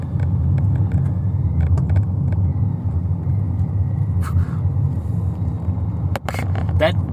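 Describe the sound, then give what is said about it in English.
A lorry engine on the road rumbles steadily and loudly, with a deep low drone throughout and a few brief sharp clanks and clicks over the top. “that freaking lorry wanna.”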